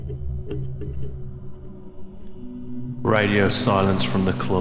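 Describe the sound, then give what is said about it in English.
After a few seconds of low rumbling interference, a man's voice speaks a short line through a microphone with its reverb dial turned up, drenched in heavy reverb, the words ringing and smearing. “if you heard any kind of interference before that, that is the reverb dial on …'s microphone”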